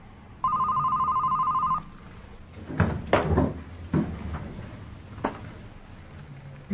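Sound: telephone ringing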